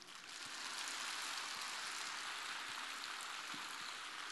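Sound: audience applause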